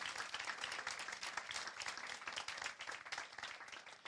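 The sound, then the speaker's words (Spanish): A crowd applauds loudly and steadily for Jesus, a dense wash of many hands clapping at once that fills the whole stretch without pause, energetic. “¿Cuántos le dan un aplauso fuerte a Jesús?”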